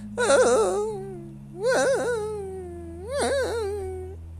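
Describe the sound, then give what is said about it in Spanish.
A person imitates the bark of a dog with damaged vocal cords that lives in front of their house: three drawn-out, strained, wavering yelps spaced about a second and a half apart, fairly loud, with no other talking. “El dueño del perro es un pobre huevón y el perro tiene las cuerdas vocales dañadas. Entonces cuando el perro ladra suena”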